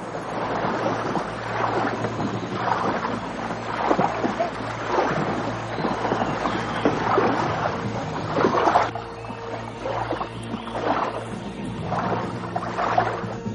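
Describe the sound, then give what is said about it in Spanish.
Oars dip and splash in a steady, repeating rhythm as colonial men row boats upstream against the current of a river, with a low constant rumble and wind underneath and no voices. “En el río los coloniales reman contracorriente.”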